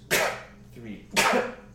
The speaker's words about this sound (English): Toddler turns, looks at you, maybe four years old or so. Tears brimming. Sneezes